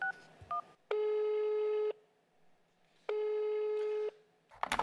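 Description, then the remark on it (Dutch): A telephone call to Amsterdam, 96 kilometres away: a few quick keypad beeps, then two long, steady buzzing ring tones about a second each with a pause between, clear, ending in a brief clatter. “Namelijk, Mirjam woont in Amsterdam en we doen dit via de telefoon.”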